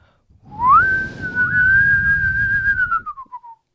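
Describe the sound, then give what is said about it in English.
A person whistles one long, sustained note imitating Gandalf's whistle; it rises quickly, holds steady for a few seconds, and then slides down and fades, with some breathy air noise underneath. “Can you whistle? Can you get this whistle, sweetie?”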